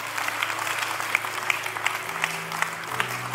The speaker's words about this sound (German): Komm, lass uns einen großen Applaus geben für jede Entscheidung, die gerade getroffen wurde.